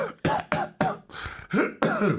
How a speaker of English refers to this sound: And I was waiting, and I was all of a sudden started coughing.